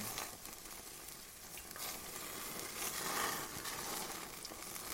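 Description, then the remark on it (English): A burger sizzles steadily on a barbecue grill, a continuous crackling hiss with small pops throughout, fairly soft, with no voices. “It says cook cooks barbecue sizzle burger food food food and drink.”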